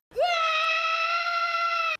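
A person imitates a taekwondo fighter's battle roar, given with a strike not carried through: one loud, sustained, high-pitched yell that sweeps up sharply, then holds steady and strained for nearly two seconds before cutting off abruptly.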